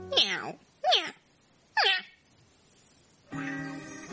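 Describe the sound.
A kitten meows three times in quick succession, high-pitched, falling cries with short pauses between. After a brief silence, a voice begins speaking.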